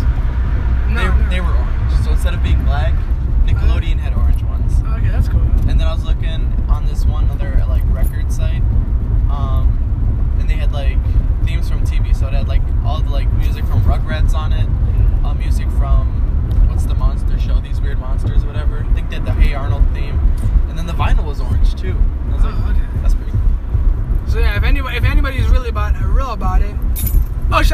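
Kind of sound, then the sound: vehicle, inside a moving car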